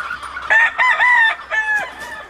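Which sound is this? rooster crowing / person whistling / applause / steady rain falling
rooster crowing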